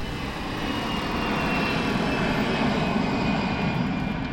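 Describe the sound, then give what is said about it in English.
A loud, steady aircraft engine roar fills the scene, a broad rumbling drone with a faint high whine that builds slightly as an El Al plane accelerates down the runway and takes off at five minutes past midnight, with no voices. “At five minutes past midnight, May 21st, the plane accelerated down the runway and took flight.”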